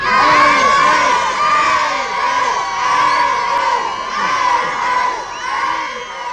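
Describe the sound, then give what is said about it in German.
A large crowd of fans screams and cheers continuously as a train departs at 10 o'clock for Friedberg in Hesse, high-pitched shrieks and whoops overlapping in a loud, sustained roar with no clear speech. “Zurück blieben seine Verehrer, die ihn zünftig verabschiedeten.”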